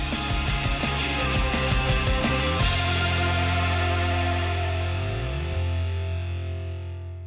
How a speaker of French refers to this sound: C'est parti, jingle.